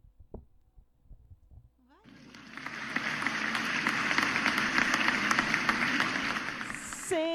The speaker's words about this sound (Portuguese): Aplausos pra vocês.